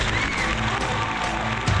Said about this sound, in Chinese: 来，掌声欢迎下一位来自大连的唱老旦的美女，来，掌声欢迎她。